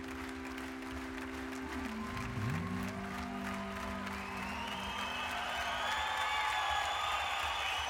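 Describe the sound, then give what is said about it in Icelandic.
Steady audience applause fills the whole stretch, a dense wash of clapping with a few whoops and cheers rising over it, while sustained musical tones linger underneath, at Royal Studios in Memphis after a brand-new song. “Og það er klappað og það er klappað og það er klappað”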